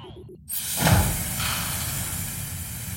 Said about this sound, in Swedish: Det finns ett företag som heter Spatial som skapar ljudbilder som gör att det känns som att man faktiskt är på plats. Jag vet inte, vi eh, ska testa till exempel hur det låter när man är, går i rymden.